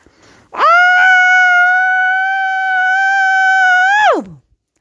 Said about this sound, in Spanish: Puede ser también una almohada y grites súper fuerte, súper poderoso, con toda tu energía, saca y grita lo que sientes por él. Hagámoslo juntas.